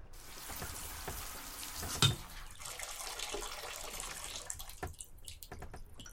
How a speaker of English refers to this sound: Stumbling, he got up the bed, went to the boat's kitchen to grab a bite, walked the coop for a quick breakfast, went back to his chamber to take a shower.